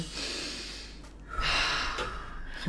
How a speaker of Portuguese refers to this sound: Hoje a gente vai respirar de maneira correta. Então, ó, já começamos aí com a respiração.